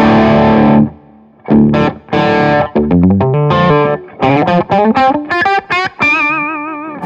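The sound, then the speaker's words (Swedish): A heavily distorted electric guitar with a humbucker pickup, through a high-gain amp with the gain at about 12 o'clock or higher, plays a loud, growling riff: a sustained chord, then choppy palm-muted stabs and quick bends, ending on a ringing held note. No talking. “Ja, men man hör ändå att så här, klockan 12 på gainen och uppåt, det är väl där den ska vara. Ja, Då morrar den ju otroligt fint.”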